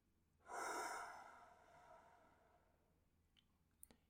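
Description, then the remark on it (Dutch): A single slow, breathy exhale through the mouth over a count of six, soft, starting with a rush of air and gradually fading away over a few seconds, followed by a couple of faint clicks. “En adem door je mond in zes tellen uit.”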